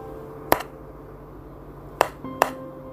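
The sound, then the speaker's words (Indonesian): Three sharp metallic knocks on the iron door of a room, one alone and then two in quick succession, each leaving a brief ringing tone over a low, steady background hum. “suara ketokan pintu besi kamar itu semakin jelas kedengeran”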